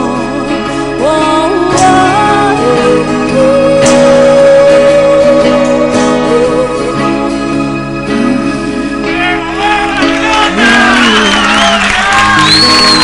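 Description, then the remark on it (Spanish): A loud, busy crowd roars continuously, with voices shouting and whooping over the din and rising, excited yells near the end. “Qué sensación de que algún conocido está gritando de ahí de fondo.”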